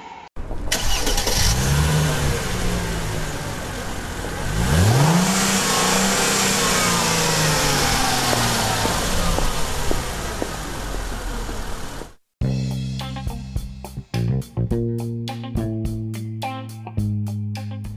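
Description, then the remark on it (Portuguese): A car engine roars, loud and continuous, with rising revs surging twice before the sound cuts off abruptly and gives way to a steadier, rhythmic tonal pattern. “não notaram que estavam sendo seguidos por outro carro, com um homem gordo ao volante e dois jovens mendigos.”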